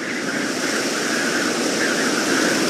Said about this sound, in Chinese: 他们刚准备往回走，突然刮来一阵大风